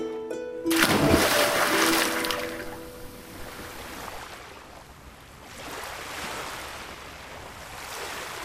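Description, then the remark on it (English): A loud splash of a man casting himself from a ship's deck into the sea, followed by the steady wash of waves rolling in and out, rising again softly near the end. No voices. “and taking the stand on the deck, he went through the high, shrill song, and then cast himself into the sea.”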